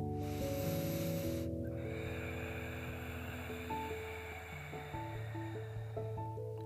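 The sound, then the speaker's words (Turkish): A slow, hissing ujjayi ocean breath drawn through a narrowed throat with the mouth closed, loudest at the start and then softening, over a steady bed of sustained, droning musical tones. “Uzun, sesli, rahat okyanus nefesleri, okyanusun dalgalarının sesine benzediği için adı okyanus nefesi.”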